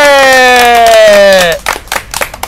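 A long, bright sustained tone that slides slightly downward gives way to a short burst of scattered, uneven hand claps from a small group welcoming their arriving president, loud at first and then thinning out.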